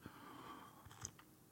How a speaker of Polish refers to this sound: łyka herbaty wziąłem, bo nie to, żebym był fanem jakimś herbaty, ale muszę coś ciepłego wypić na brzuszek.